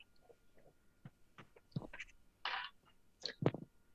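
Quiet sipping and swallowing of water: a few soft wet slurps and gulps in short, irregular bursts, with a slightly louder slurp in the middle and a couple of gulps at the end. No talking.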